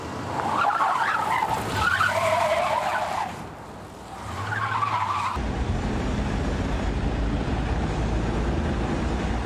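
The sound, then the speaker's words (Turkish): A yellow dump truck in Istanbul grinds and scrapes against highway barriers in two loud, screeching bursts, then crosses into the opposite lane and runs over two cars in a dense, continuous roar of crashing noise and rumble. No voices are heard. “Gitgide bariyerlere yaklaştı, sürtünmeye başladı, durmadı. Bariyerleri aşıp karşı şeride geçti. İki otomobili altına aldı.”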